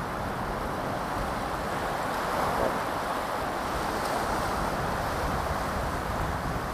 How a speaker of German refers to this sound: Jetzt kommt wieder eine Welle.